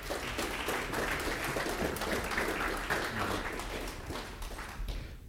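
Sustained applause from a crowd, dense overlapping hand claps forming a steady, even roar that holds at a consistent loudness for several seconds before easing slightly at the end.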